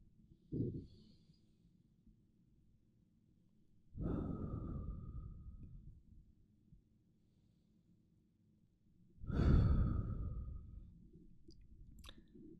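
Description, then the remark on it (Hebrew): A deep breath taken during a guided breathing exercise: a long, airy inhale, a pause, then a fuller, louder exhale, with no talking. “אז מהמקום הזה, אני רוצה שניקח עוד נשימה עמוקה.”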